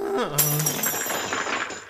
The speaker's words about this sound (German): Der Esel streckte sich, und vor den staunenden Augen der Königin fielen aus seiner hinteren Öffnung zahlreiche Goldmünzen zu Boden.